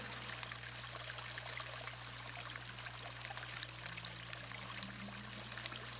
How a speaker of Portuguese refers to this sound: enchendo seu copo de água.